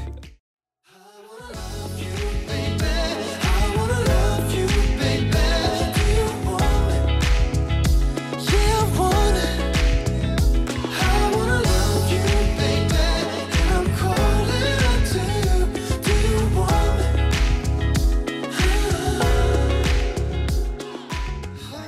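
A full-band pop song plays loud and steady after a brief moment of silence, with a strong bass and drum rhythm, layered instruments and a sung male lead vocal running throughout.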